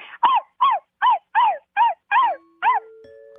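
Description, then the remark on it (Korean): A child imitates a puppy with seven short, high yipping barks in a steady, even rhythm, fairly loud, with no other sounds around them. “그래 강아지 한번 들어보자.”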